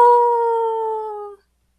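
A single wolf howls in one long, steady tone that sags slightly in pitch before cutting off after about a second and a half. It is loud, with no other sounds.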